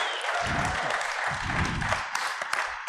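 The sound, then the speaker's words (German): A crowd applauds steadily at the end of an actual play session of the game Kids on Bikes, a dense wash of many hands clapping at an even, fairly loud level, with a few sharper claps standing out near the end. “Dankeschön. Applaus”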